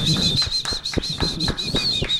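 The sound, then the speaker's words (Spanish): Hands clap in a steady rhythm, about eight or nine sharp claps, over a constant high-pitched whistling tone and a low background murmur. “Un aplauso, bravo.”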